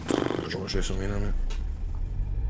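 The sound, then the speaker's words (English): A voice mimics a car engine starting, a sputtering, revving vocal buzz that rises and then settles into a low, steady rumble, fairly loud. “So let's get in this car and get it started.”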